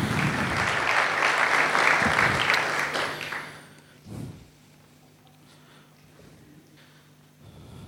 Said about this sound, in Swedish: Vilken ljuvlig sång. Är de inte värda en applåd?